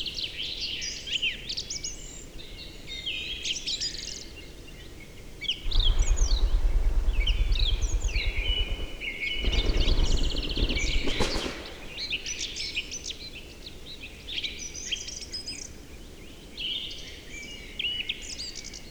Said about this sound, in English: In the distance, we hear the unmistakable sound of the Swedish forest dragon, the capercaillie. This bird is going to use the evening to fly towards the lek.